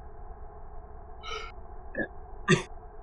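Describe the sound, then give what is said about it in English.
A few short, breathy inhales and exhales come in quick succession against a quiet background, with no talking. “So, so, so the trick is that you gotta when you breathe in, like keep your stomach sucked in when you breathe out.”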